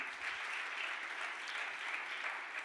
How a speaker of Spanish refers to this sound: Hoy, del otro aplauso fuerte a papá.